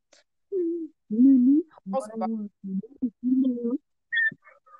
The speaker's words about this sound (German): Was? machst du, Digga? Ich höre mir Meme-Sounds an.